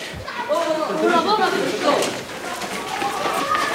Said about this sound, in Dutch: Men rent hier weer.